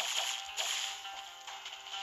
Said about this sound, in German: Die Peitsche, die elektrische Peitsche, Alter.